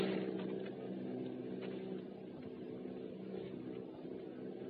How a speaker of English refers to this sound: Planes circling, ready to strike.